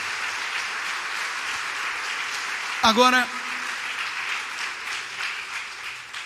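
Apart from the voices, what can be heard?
audience applause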